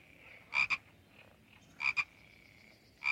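A frog croaks in three loud double bursts, spaced about a second apart, over a faint, steady high-pitched background drone. No voices.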